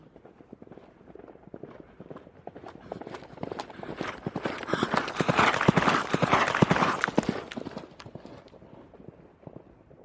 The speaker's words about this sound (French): On s'est donné la main dans la main. Les chevaux galopaient au même galop.